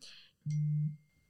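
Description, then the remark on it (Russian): A phone notification chime announcing that money from a Kaspi bank deposit has arrived: one short, steady electronic tone lasting about half a second, loud, after a brief soft hiss, with no voices. “Что за сообщение? Это звук счастья. Это мои деньги от Каспи депозита подъехали.”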